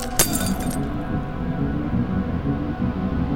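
A sudden, sharp crack of a TV screen's glass breaking near the start, followed by a brief brittle tinkle that fades quickly, all over a steady low rumbling drone.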